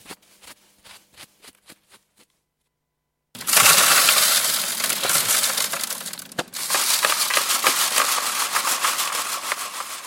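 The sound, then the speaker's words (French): Several sharp, evenly spaced taps of digging tools at an archaeological excavation site give way after a pause to loud, continuous gritty scraping and crushing of soil, with no voices. “Alors ces bruits correspondent aux outils utilisés”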